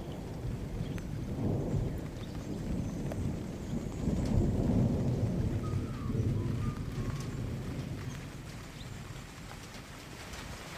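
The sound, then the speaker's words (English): Steady rain hisses throughout in the bush while deep thunder rumbles roll underneath, swelling twice into longer, heavier growls before easing off. No voices are heard. “He's taking himself off for a walk in the bush in the rain.”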